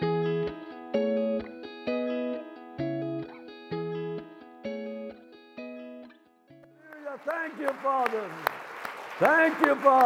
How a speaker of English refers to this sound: Come on, just a little bit more. Oh, we used to clap for the Dodgers. Let's clap for the Lord.